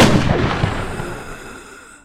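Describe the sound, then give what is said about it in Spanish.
A single loud gunshot rings out from a cocked gun aimed at a man lying in bed, its sharp blast followed by a long, rumbling echo that slowly fades away. No voices are heard. “Vincent intentó levantarse después del disparo, pero no lo logró.”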